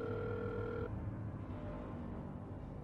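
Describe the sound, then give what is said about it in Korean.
A telephone ringback tone sounds once during a phone call to the caller's father, made from a car, a steady electronic purr lasting under a second before cutting off, leaving only a low, constant background rumble. “다행히 곧 아버지께서 전화를 받으셨다.”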